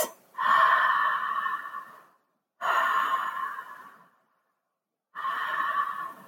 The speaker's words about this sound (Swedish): Där kan man lägga en hand på magen och en på bröstet. Öppna munnen och så sakteliga bara andas ner i magen. Så att man andas det här cirkulära andetaget.